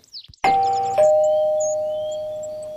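A doorbell chimes a clear two-note ding-dong, the higher tone first, then a lower one that rings on and slowly fades, as the wolf calls at the grandmother's door in Little Red Riding Hood. Fairly loud, with no voices.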